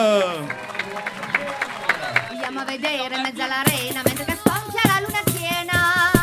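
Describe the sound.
An audience at a Radio Crochet event applauds and cheers for a participant, scattered claps mixing with many overlapping shouting voices. The noise swells louder and fuller about halfway through and stays lively to the end.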